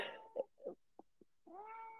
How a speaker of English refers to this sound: my cat is protesting how unfair it is